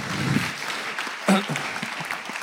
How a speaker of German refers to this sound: Vielen Dank, habt ihr sehr gut gespielt. Das ist euer Applaus. Super.